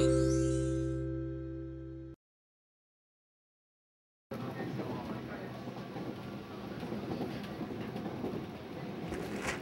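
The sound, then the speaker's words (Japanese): A short tonal chime fades into a moment of silence, then the steady rumble and rattle inside a moving electric train carries on evenly to the end. “電車の中なんだからああ”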